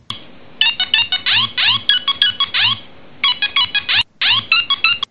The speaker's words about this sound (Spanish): A ver si podemos recordar los famosos sonidos de, los ringtones de, de los Nokia.